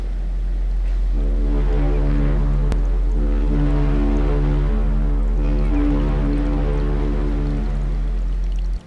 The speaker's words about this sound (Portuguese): As duas estrelas estavam tão entretidas na conversa que quase não deram conta que um gigantesco barco-fábrica se aproximava para mais uma vez assassinar o oceano. Não fosse o barulho dos motores e quase eram apanhadas.